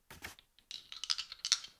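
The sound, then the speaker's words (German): A percentile die rolls across a hard surface: a couple of quick clicks, a brief pause, then a rapid rattling clatter of taps that settles and stops. Fairly quiet, with no voices. “Und, Moment, ich würfel mit einem Prozentwürfel.”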